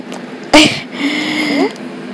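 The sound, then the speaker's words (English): A male dog yawns: a short breathy gust of air, then a thin, drawn-out squeaky whine that lifts in pitch before trailing off, with no talking. “That was him yawning, by the way.”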